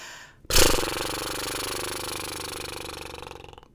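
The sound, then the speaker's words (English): A breathy, unvoiced lip trill done as a breath exercise: air blown through loosely flapping lips makes a rapid, buzzing flutter that starts abruptly and holds steady for about three seconds before fading out, fairly loud. “So, a lip trill without sound is this.”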